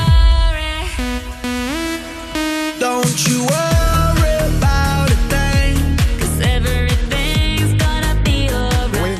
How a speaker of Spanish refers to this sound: es la primera vez que … se unen en una misma canción